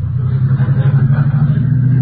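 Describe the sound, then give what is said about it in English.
A car engine hums steadily, a low continuous rumble with no talking, like riding inside a moving vehicle at a moderate pace, as the car is slowing down. “what is you slowing down again for?”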